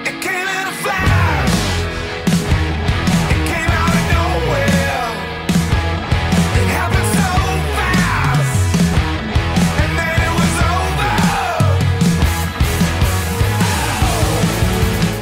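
A loud, dense rock song with driving drums, distorted guitars and strained, shouted vocals, playing continuously at full volume from just after the start to the end.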